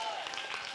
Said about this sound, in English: Come on, stand to your feet in this place. Give Jesus a big clap of praise if you believe that tonight.